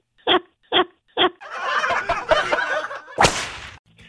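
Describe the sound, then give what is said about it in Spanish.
Three sharp, evenly spaced whip-crack sounds snap in quick succession, apparently a voice imitating them. Noisy laughter and chatter follow, ending in one more loud burst. “¡Sas culebra al piso y tras, tras, tras!”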